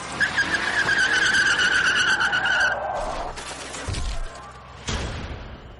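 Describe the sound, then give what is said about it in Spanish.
A car's tires screech in a long, loud skid for a few seconds, followed by heavy crashing impacts and a final bang, with no one speaking. “En todo caso, el coche ha sufrido un choque y la infectada, porque es una mujer, ha salido despedida hacia atrás.”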